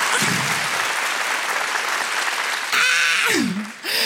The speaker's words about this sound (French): Préparez-vous maintenant à accueillir notre prochain artiste et faites du bruit, où que vous soyez, pour Sérine Ayari.